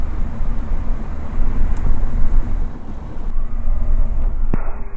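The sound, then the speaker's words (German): A small ultralight aircraft engine drones steadily as it rolls along the ground from the hangar to the runway, a continuous loud rumble with a faint hum on top and no voices. “Das Ultraleichtflugzeug ist einsatzbereit und schon wenig später auf dem Weg vom Hangar zur Startbahn.”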